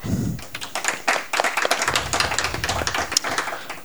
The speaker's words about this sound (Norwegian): Jeg foreslår at dere som er med oss live, gir dere en raus applaus og lener dere godt tilbake.